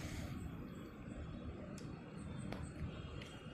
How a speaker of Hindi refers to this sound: इधर बाजू में रोड है उसकी आवाज़ आ रही होगी आपको गाड़ी की ये फ्लाई ओवर है फिर से गाड़ी जा रही है कई आवाज़ आ रही है